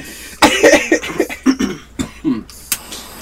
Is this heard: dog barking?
no